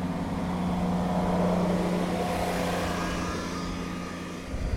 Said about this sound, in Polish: To była kosiarka.